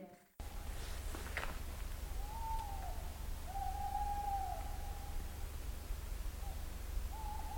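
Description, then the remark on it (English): Owls hoot back and forth in a duet: long, wavering tonal calls around mid-pitch, several in sequence over steady low background noise, clear. “Magical owl duet.”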